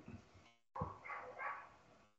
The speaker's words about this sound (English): They got dogs.